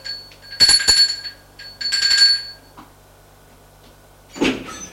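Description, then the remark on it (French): A door is opened with two rattling, squeaky bursts, followed after a pause by a short, duller thump; no one speaks. “Lui a ouvert Nathalie.”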